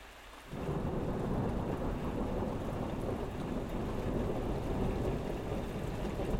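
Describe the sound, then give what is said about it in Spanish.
Heavy, steady rain pours down on a patio with a gazebo after a brief quiet start, a dense hiss and patter that holds at the same strong level throughout, with a low rumble underneath and no voices. “ya está en el patio, en una glorieta que la protege de la lluvia.”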